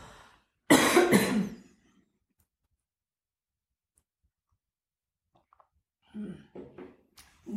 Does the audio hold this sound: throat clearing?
yes